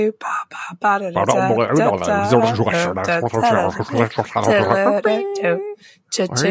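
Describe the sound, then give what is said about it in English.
Voices played backwards, a continuous stretch of garbled, unintelligible speech with warped swells and sudden cutoffs, fairly loud for several seconds. “It's the sound of everything in reverse”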